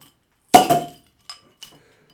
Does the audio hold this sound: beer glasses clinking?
yes